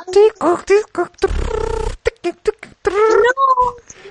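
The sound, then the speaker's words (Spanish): A voice imitates a dial-up modem connecting a telephone line to a computer: warbling squeals, a harsh hissing burst, then a thin high whistle, performed in quick choppy bursts for a few seconds. “no sé si vos, la, viviste o no, pero que desconectar el teléfono y conectarlo a la compu y que se escuche el...”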